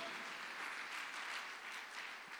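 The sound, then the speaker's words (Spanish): An audience applauds steadily for the King of Glory, a dense wash of many hands clapping together at a fairly loud, even level throughout, with no voices standing out. “Si usted lo cree, déselo fuerte al Rey de la Gloria.”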